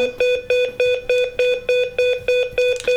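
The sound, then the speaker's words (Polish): A loud electronic SOS alarm from a small handheld single-button remote, set off by pressing its button, beeps in a rapid, steady pulse, about three short high-pitched tones per second, repeating without pause and with no voices over it. “I tym przyciskiem, jak go nacisnę, można także wywołać ten sygnał.”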